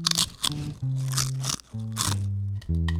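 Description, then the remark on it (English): Several crisp crunches of a churro strip chip being bitten, landing in a steady rhythm in time with the beat of a sustained musical tone in the background. “The final crunch.”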